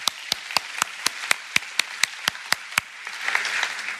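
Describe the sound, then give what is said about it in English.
During a sermon, a crowd claps for those who prayed for the first time, in a steady, even rhythm, about a dozen sharp beats in quick succession, then the beat dissolves into a looser wash of scattered applause. No one speaks. “Now, every head up, every eye open, and let's give a round of applause for those who prayed that for the first time.”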